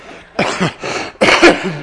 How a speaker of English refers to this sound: Excuse me. I'm supposed to grab this, then cough.